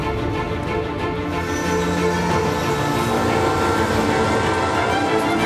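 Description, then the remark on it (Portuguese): A train rumbles steadily along the rails, loud and close, with a dense metallic roar and a brief sustained horn-like tone partway through. No voices are heard. “Sobre o trilho do trem mais perigoso do mundo.”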